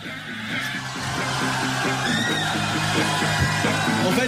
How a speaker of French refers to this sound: un extrait euh, live du euh, CD-DVD